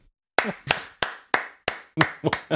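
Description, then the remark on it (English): Hands clap about eight times as a standing ovation, in a steady, moderately paced rhythm, each sharp and fairly loud, with the last few coming a little quicker. No one speaks. “Was that for was clapping or because your watch told you to stand up?”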